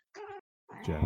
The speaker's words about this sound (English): What was that? That's my cat. Sorry. Okay. It was a cat. It was a yeah, furry cat. Yeah, that's like that sounds like a cat.